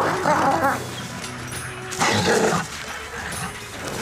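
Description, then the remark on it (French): A wolf growls and snarls savagely in a loud attack at night on a group of assailants, with two fierce surges of snapping and rough, throaty noise over a constant rumble of struggle. “C'est alors qu'un hurlement résonna. et deux yeux brillèrent dans la nuit.”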